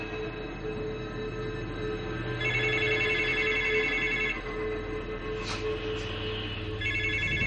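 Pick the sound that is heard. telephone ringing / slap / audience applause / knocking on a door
telephone ringing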